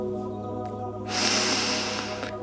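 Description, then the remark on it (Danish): A single long, deep inhale through the nose, fairly loud, with an airy rushing sound lasting over a second and a faint steady hum underneath. No speech. “Tag en dyb vejrtrækning nu, men kun med din næse.”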